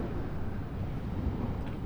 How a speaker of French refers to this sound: Mais ce qui est intéressant dans le phénomène de ce soir, c'est cette espèce de roulement continu, très basse, très grave, qui est dû en fait aussi au vent.